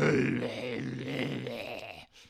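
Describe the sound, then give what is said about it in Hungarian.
A voice imitates Batman's rough, gravelly growling whisper, held for about two seconds as one continuous raspy, strained sound, fairly loud, then breaking off briefly at the end. “az új csáv, az meg ilyen suttog, érted?”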